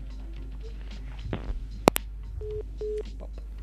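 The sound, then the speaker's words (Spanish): Telephone beeps after a call hangs up: a couple of sharp clicks, then two short, steady electronic tones repeating in a slow rhythm, heard clearly over faint background hum. “mola escuchar los pitidos.”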